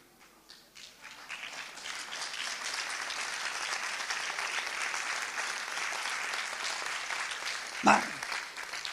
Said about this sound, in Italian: L'applauso vale per me o per Berlusconi? Vale per la galera, grazie.